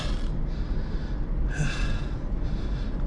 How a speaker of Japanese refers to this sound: この息遣いがね、まあ、物語ってると思うんですがまあこれぐらいやんないとねダメですね